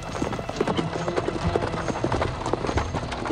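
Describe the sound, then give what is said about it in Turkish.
Horses' hooves clip-clop steadily as a convoy escorts Rüstem's carriage through a forest at night. Many overlapping hoofbeats make a dense, continuous patter with a rough, rumbling wash beneath and faint voices mixed in. “Gece vakti ormanda Rüstem'in arabasına refakat eden bir kafile.”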